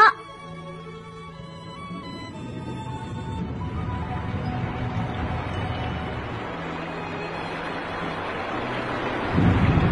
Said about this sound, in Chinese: 下雨了，不管刮风还是下雨，乌鸦妈妈总是辛勤的飞出去给小乌鸦找食儿。